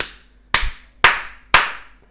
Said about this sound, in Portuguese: era um tapa. Era um não tapão. precisava ser tão alto. Tem que né? ser realista, tem que ser realista. A gente tá no podcast, efeitos é especiais. efeitos especiais.